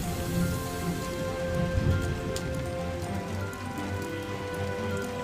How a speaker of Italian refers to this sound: un altro fulmine colpisce la cupola del municipio di Ultima e un altro tuono rimbomba per le strade cittadine.